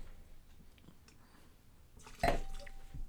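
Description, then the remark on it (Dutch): Whiplash wine is poured into a glass, a brief splashing gurgle with a faint glassy ring, preceded by quiet rustling and soft clicks and no one speaking. “Zijn we eh, klaar voor de, volgende of, of mag ik nog niet eens schenken? ik ga.”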